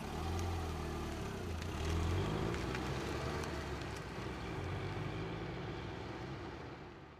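A car engine rumbles, low and steady, then eases off slightly toward the end as the vehicle rolls to a stop at the gate at the entrance of the Baskerville estate. No voices.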